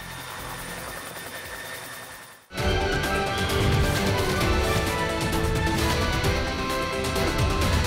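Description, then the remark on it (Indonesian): A Bell 212 helicopter roars in flight near Tembagapura in clear weather, carrying a team to monitor the eternal snow peak; its steady rotor thump and engine whine fill the scene, briefly dropping at one moment before returning louder, with no voices. “Tim akan menggunakan helikopter Bell 212.”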